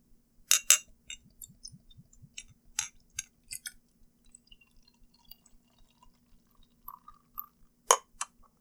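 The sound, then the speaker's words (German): Beer being poured from a bottle into a glass: a few sharp clinks, then low gurgling and scattered drips and splashes, fairly quiet, with a faint steady hum underneath and no talking. “Und gießen uns einen Schluck ein.”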